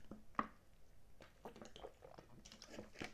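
Someone quietly drinks water, with soft sips, wet swallowing sounds and a few small clicks from the cup or bottle. No one speaks.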